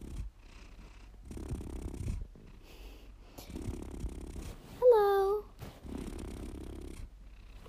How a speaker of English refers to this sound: No, he's just purring.